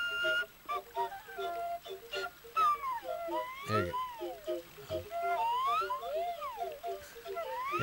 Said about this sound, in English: to achieve that effect, he's dipping himself in the water. Yeah. he's just putting himself right under the water, and the flute's filling.